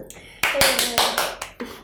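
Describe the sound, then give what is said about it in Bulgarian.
Hands clap in a quick, steady burst of about half a dozen sharp claps, fairly loud, like a short round of applause that soon fades out. “Е, да аплодисменти, бе.”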